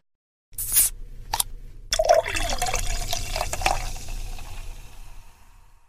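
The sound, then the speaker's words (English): Silver Reef ales and lagers pour steadily into glasses, a broad fizzy hiss with a few clinks and splashes at the start, continuing for several seconds with no talking. “But before we leave, let's have some beers.”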